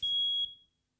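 A single shrill electronic alarm beep, like a smoke detector, sounds for about half a second over a faint low rumble, then fades out.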